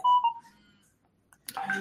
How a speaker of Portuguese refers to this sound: Deixa eu só tirar o som do meu telefone aqui, que ele está perturbando um pouco.